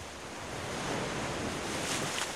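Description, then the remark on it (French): Steady ocean surf rushes and hisses, a broad wash of water rising and easing as waves roll in and draw back, with some wind noise and no voices. “On entend la mer qui va, qui vient.”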